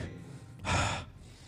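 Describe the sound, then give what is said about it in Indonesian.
A single deep breath drawn in sharply through the nose during a breathing exercise demonstration, a broad airy hiss lasting under half a second, fairly loud, with quiet background before and after. “Tarik lewat hidung, buang lewat mulut. Yang oh, di uh, nafas yang digunakan kayak itu.”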